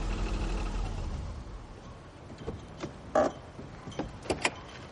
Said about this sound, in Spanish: El coche de Toller llega a la casa de Mary y Michael.